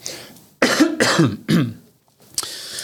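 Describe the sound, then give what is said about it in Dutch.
A few short coughs in quick succession, a throat-clearing hack repeated three times, followed by a brief pause and one faint final catch. No talking. “Even een kuchje.”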